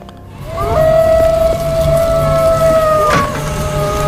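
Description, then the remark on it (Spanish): A long, eerie howl in a radio drama holds a steady high pitch for a few seconds, then slides briefly downward, set against a constant hissing, rumbling background with no talking. “¿Y esos terribles aullidos, Yolanda?”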